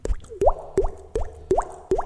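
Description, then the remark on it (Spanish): A voice imitates water drops with five quick, evenly spaced mouth plops, each a short hollow bloop rising in pitch, clear with no other sound. “Y también este como imitar, no sé, sonidos ambientales, no sé, una gota.”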